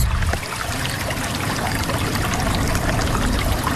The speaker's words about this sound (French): là, on peut entendre juste devant nous la rivière qui s'écoule, donc sous les lodges des ours.